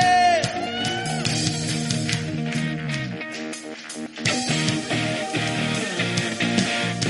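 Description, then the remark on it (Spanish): A church audience shouts and cheers with joy in the afternoon while praising the Lord, a loud, dense mass of overlapping voices that swells and carries on without pause for several seconds. “levantando un grito de júbilo esta tarde.”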